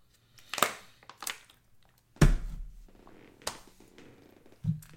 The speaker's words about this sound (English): Let me take a swig of my water.